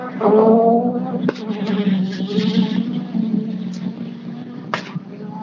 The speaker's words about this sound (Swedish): Det låter bra, Christians bil alltså. Det är en väldigt karaktäristisk ton i den. Den eh, är ju Grupp H nu den här bilen då jämfört med R3 förra året så det är ju lite mer pulver i maskinen. Ja. Det låter riktigt bra det här.